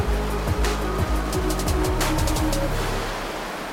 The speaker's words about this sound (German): Tatsächlich ist der eben noch zugefrorene Fluss zu einem reißenden Strom geworden. Auf den Wellen tanzen entwurzelte Baumstämme.